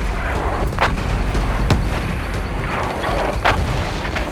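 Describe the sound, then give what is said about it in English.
A mortar barrage: sharp shell blasts crack out, two or three rounds a second, over a constant heavy, rolling rumble of explosions around a hauler. Loud and dense, with no voices. “The barrage began, and they were dropping two or three rounds a second must have unloaded at least 30 times in the area around the hauler.”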